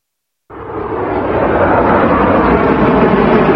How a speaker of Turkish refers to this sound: Türkiye'nin milli muharip uçağı yerden teker kesti. Gökyüzüyle buluşan Kaan ilk uçuşunu başarıyla gerçekleştirdi.